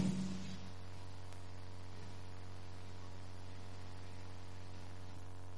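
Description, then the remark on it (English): A steady electrical hum drones through a church sound system, a low constant buzz with faint static on top, briefly louder at the very start and then holding level with no voices. “this thing is still humming.”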